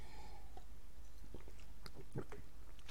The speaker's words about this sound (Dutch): en dan moet ik even een slokje water drinken.